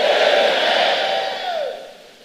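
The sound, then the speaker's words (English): An audience shouts amen together, a loud, sustained roar of many voices with one drawn-out tone that slides downward before the crowd noise fades. “Oh, I thought I would hear a greater amen.”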